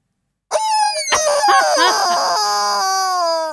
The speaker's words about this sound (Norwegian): Det er ei pipete gås!